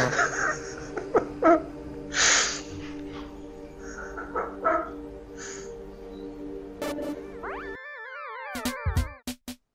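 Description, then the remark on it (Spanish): A small bird chirps and calls in short, scattered bursts over a steady low background hum, then everything cuts to warbling electronic tones near the end. “El cantar de un pajarito se mezcla con el viento y mueve la hierba mientras eh, vos seguís respirando.”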